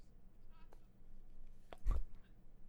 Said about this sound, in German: Oh, ich sehe gerade ah, den Trailer, oh. wie geil ist denn das Schwein? Eigentlich relativ gut. ah, ist das hm. süß. Oh. das ist so süß.